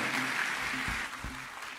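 An audience at a church service applauds in a steady, dense wash of clapping to welcome a band, with a few low thumps underneath and no one speaking.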